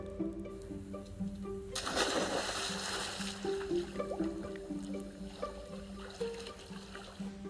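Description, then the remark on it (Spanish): A penguin plunges into a lake filling a crater atop a mountain, racing across it, with a single bright splash, followed by softer trickling and dripping, all set against a steady, droning background of sustained tones. “Pero una vez en el agua, su velocidad era insuperable y ganó con una gran diferencia,”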